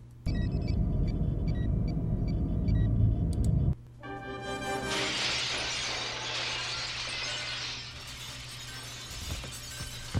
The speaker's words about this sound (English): Somebody just threw through a glass window. Thrown, I guess.